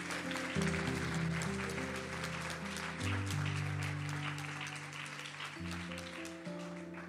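A church audience applauds the Lord for a sister of the church, clapping steadily throughout, a dense crackle of many hands that holds for several seconds, with sustained keyboard chords shifting beneath it and no one speaking.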